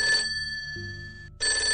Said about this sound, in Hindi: तभी फिर से फोन बजता है मेरी फोन उठाने की अब दोबारा हिम्मत नहीं थी धीरे धीरे अपना हाथ बढ़ाया और फोन की तक ले गई